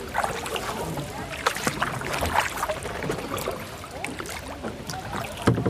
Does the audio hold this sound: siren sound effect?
no